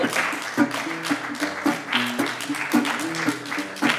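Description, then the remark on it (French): Steady audience applause for a song, a dense crackling wash of many hands clapping, with a few voices cheering and calling out through it for the whole four seconds. “Je peux vous dire que vous n'êtes pas les seuls à applaudir cette chanson”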